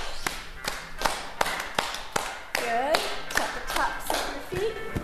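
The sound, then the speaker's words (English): Hands clap up and down in a steady, even rhythm during a Dance for Parkinson's group class in Bloomington, Indiana, about a dozen sharp claps spaced just under half a second apart, while a voice speaks briefly over the middle of the sequence. “And we're going to take clapping, but in an unusual way, up and down.”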